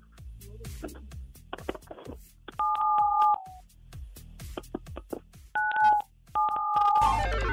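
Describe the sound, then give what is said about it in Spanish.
Three steady telephone keypad tones sound one after another, each a short dual-pitched beep, dialing 977 on a phone, amid a run of sharp clicking and tapping noises, with no talking. “Oye, entonces presiona en tu teléfono el 977”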